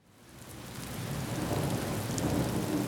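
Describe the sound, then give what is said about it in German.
Steady rain hisses across a broad wash of noise while deep thunder rumbles underneath, on a rainy day in St. Louis, Missouri, swelling from a quiet start to a full, sustained roar with no voices. “Es ist der 4. September 2022, ein etwas verregneter Tag in St. Louis, Missouri.”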